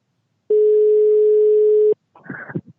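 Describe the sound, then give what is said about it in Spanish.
A loud, steady telephone dial tone hums unbroken for about a second and a half as a call is placed, then cuts off, followed by a short, muffled burst of clicks and line noise. “Bueno, como bien sabéis, hoy vamos vamos a llamar a alguien.”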